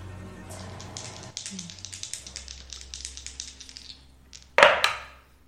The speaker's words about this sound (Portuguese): Você então escuta o movimento, você percebe que algumas dessas caixas, desses pedaços se quebram e algo sai de dentro da, daquela montoeira de coisas, de detritos no chão.